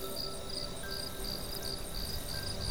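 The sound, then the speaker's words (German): Steady chorus of crickets and insects chirping and buzzing outdoors in a yellow field, a continuous high trilling pulsing in repeated bursts over a soft, constant field ambience with no voices. “Das gelbe Feld ist voller Leben. Um die Fanian herum summt und kräsmet”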